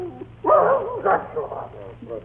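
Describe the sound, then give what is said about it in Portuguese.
A mongrel dog, Patusco, barks a few times, a sharp, strong first bark followed by shorter, softer yaps, with a faint hum in the background. “Nós tínhamos em casa um cachorro tipo vira-lata, muito amigo da menina.”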